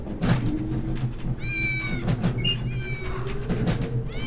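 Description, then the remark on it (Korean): A cat lets out a series of sharp, high-pitched meows over a steady low hum, the cries rising and bending in pitch, distinct, with no one talking. “그새 고양이 울음소리가 날카로워졌다.”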